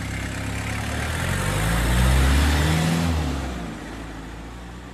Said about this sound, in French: Et il est allé sortir la camionnette du garage.